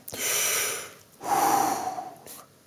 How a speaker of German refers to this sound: Atmen. Das heißt Leben. Atmen ist Lebensvollzug. Atmen ist keine bewusste Entscheidung. Es geschieht ganz von selbst.